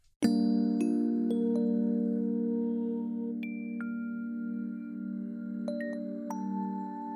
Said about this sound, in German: Wenn ich Complexity aber weiter nach rechts ziehe, dann kommen Töne dazu, die laut Handbuch auch zum Akkord dazugehören. Das ist natürlich immer an die Sache, in welcher Skala ich gerade bin. Ich spiele meinen simplen G-Moll.